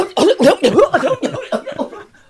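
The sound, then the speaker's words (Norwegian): A voice imitates a coughing fit after inhaling pipe smoke for the first time: about ten rapid, harsh bursts in quick succession, fairly loud at first, then weakening and trailing off into quieter sputters. “Hosta i vei.”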